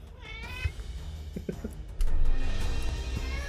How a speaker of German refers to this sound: Dieser Kater im Hintergrund, ne?